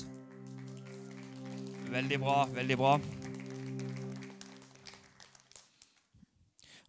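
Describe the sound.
A crowd applauds the boys on stage in a steady patter of many hands, loudest in the first few seconds and then tapering off, while a man speaks over it alongside a sustained musical tone.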